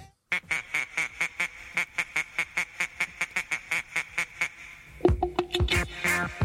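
A novelty duck dance tune: a steady run of about seventeen loud, nasal quacking blasts on the beat, then a bouncy melody kicks in with the quacks continuing over it.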